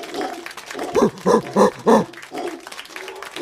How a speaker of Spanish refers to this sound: Quita el mono aullador.